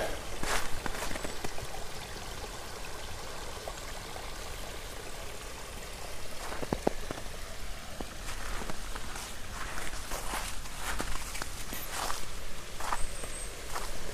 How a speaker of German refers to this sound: Es ist schön. Ah, ein bisschen plätschern.